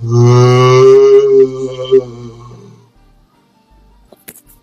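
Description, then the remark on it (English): A person imitates strange moaning sounds from deep in the swamps, voicing a long, low, wavering moan for about three seconds, loud, trailing off into quiet with a faint click near the end. “you all hear strange sounds coming from deeper in the swamps, like moaning, like.”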